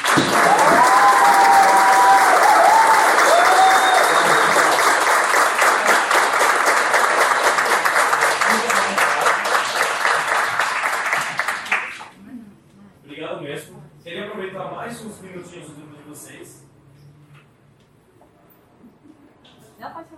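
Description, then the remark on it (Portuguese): A crowd claps for the teachers in sustained, dense applause for about twelve seconds, loud and steady, then it fades out and people begin talking. “Não acabou ainda, mas eu quero uma salva de palmas para os professores.”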